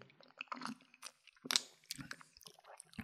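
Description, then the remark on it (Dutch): Slurping and sipping from an iced cocktail in a large glass with lots of ice, with small crunchy, clicking bursts like ice shifting in the glass, spread irregularly over a few seconds with no talking. “Ik ga even proeven. Ja, proef hem vooral. Ik neem zelf ook een slokje.”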